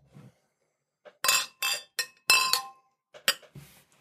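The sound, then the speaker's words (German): Several bright glass clinks ring out in quick succession as glasses are knocked together in a toast, fairly loud, with a few softer taps and faint rustling between them. “Prost. Ich bin aufgeregt wie immer. Prost.”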